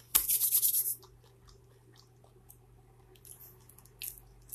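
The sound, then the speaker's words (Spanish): A person chews food, opening with a loud, crunchy bite for about a second, followed by quieter wet mouth clicks and a couple more crisp chomps near the end. No one speaks. “otra amiga mía que sé que escucha el podcast no quiera escucharlo, bueno, pues escucharme comer”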